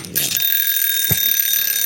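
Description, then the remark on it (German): A bright, high-pitched winner bell rings continuously with a sustained metallic shimmer, steady and loud throughout, with a brief low thump partway through. “Die Gewinnerklingel.”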